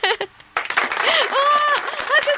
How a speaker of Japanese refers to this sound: 拍手